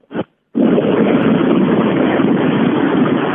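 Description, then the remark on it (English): Steady, loud road and engine rumble from a moving car, heard through a muffled, narrow phone line, starting after a short crackly burst and a brief gap. “No, we're riding in a car now.”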